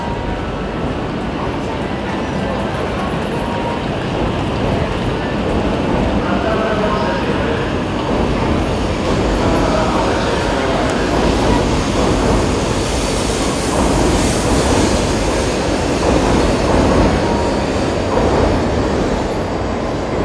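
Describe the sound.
A Shinkansen high-speed train at a platform of Tokyo Station, Japan: a steady, loud rumble and hiss of the train, with indistinct voices in the background.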